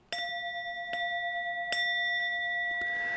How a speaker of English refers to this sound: That is a actually a Tibetan singing bowl that I have in my house. I've got a few of them, and I love them. They're so peaceful and they're great for meditation.